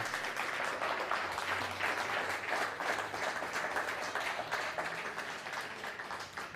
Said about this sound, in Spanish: Denle un fuerte aplauso al Eterno, por favor.